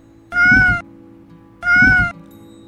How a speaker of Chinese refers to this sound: 这是猫咪的声音哦。